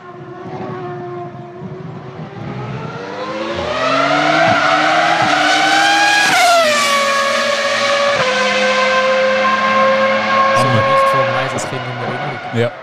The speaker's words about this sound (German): Nicht die V6 so auf, wo aufgemotzt sind, dass sie einfach die Leistung bringen. Da finde ich so V10-Sound viel angenehmer und so, genau. Das ist ein Beispiel